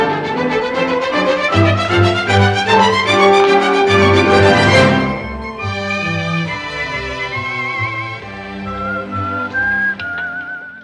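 Two people whistle the bright, lilting Gigetta theme from the Gidget film over a steady instrumental backing, the whistled melody standing out clearly in the second half. In the film the whistlers are two priests on a bicycle. No one speaks.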